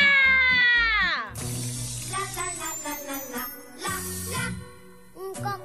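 A dance remix of a children's song plays loudly, with a pulsing, thumping bass beat under bright, gliding melodic lines and meow-like cat sounds woven into the track. No one talks.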